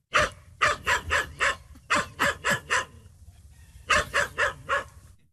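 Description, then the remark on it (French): A Tibetan spaniel barks sharply, firing off three quick bursts of about four high yaps each, separated by short pauses, with no voices. “Critique numéro 3, c'est toujours du tibétain, mais vous l'auriez remarqué puisque vous le parlez couramment, mais là c'est de l'épagnol tibétain.”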